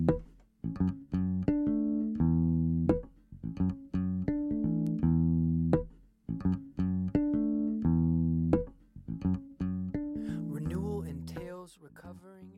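A song from a priest's album, played on Radio Horeb, plays loudly and continuously, with sustained tonal chords punctuated by regular rhythmic hits, and a wavering vocal line rising in near the end.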